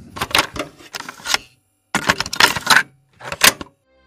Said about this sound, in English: Hold on, I gotta. We ran out of tape. I gotta flip it over.